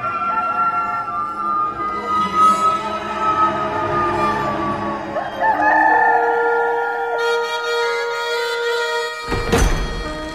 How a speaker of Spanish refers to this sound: Y al instante cantó un gallo.